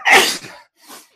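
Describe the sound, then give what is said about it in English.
A sharp sneeze bursts out loudly, followed after a brief pause by a softer, breathy second sneeze or exhale. No talking is heard. “so I have to sneeze whenever he's.”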